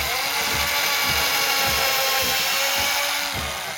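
A loud power drill whines steadily while driving screws, with a repeating low thump about twice a second, and no one speaking.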